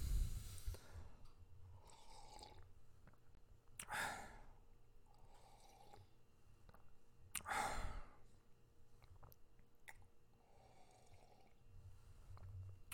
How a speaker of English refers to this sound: coffee sip time